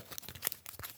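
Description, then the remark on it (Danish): Small cardboard board-game pieces of Macedonians and Persians being popped out of a punched sheet: a few quiet, crisp snaps and scratchy tearing rustles in quick irregular succession, with no voices. “Men øh, lige nu, øh, det, det, det, det er lyden af nogle makedoner og nogle perser, der bliver pillet ud af deres pap her.”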